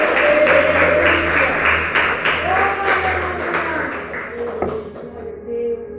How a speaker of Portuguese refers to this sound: Aplauda o Senhor Jesus, glória a Deus.